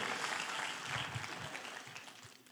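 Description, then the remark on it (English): A church audience claps steadily during a sermon for a couple of seconds, a dense, even patter of many hands at moderate loudness that fades slightly toward the end, with no voices. “I know if you can't clap, just nod.”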